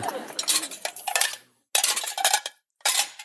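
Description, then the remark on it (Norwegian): Plates and dishes clatter and clink in three quick bursts, with short silent pauses between, as crockery is stacked into a dishwasher rack. “At du snakket med tallerkenene og spurte hvor vil dere være, hvor vil dere bo?”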